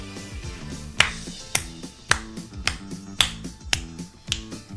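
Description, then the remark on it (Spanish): A song plays with crisp, loud finger snaps landing on a steady beat about twice a second over a bouncy bass line, with no voices talking. “Bueno, voy a ponerle play para que la termine de escuchar bien.”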